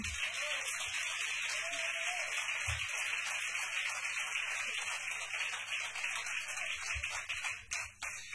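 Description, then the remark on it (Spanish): Steady, dense audience applause for a band's musicians fills the whole stretch, a continuous crackling wash of many hands clapping at once with no voices on top, thinning slightly near the end. “pues un fuerte aplauso a todos estos músicos, ¿no?”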